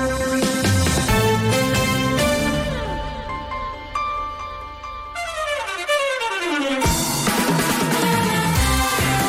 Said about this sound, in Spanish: Esta es la sintonía de Gente Viajera. Es el programa dedicado al turismo, a los viajes que pueden escuchar todos los fines de semana al mediodía en la sintonía de Onda Cero